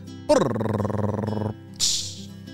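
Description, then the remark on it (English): A voice imitates a drum roll to celebrate a birthday, a fast, rolling trill lasting about a second, then breaks off and follows with a short hissing burst like a cymbal crash, fairly loud. “Drum roll, please.”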